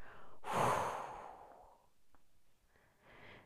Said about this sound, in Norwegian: Og så holder du pusten. og så puster du godt ut igjen.